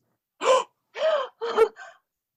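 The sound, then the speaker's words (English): A series of sharp, loud gasps, three strong breathy intakes in quick succession followed by a softer fourth, clear with no talking. “suddenly and loudly gasps.”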